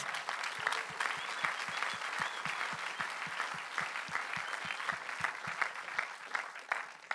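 Sustained audience applause with dense clapping throughout, steady and fairly loud, with a crowd murmur underneath and no clear speech.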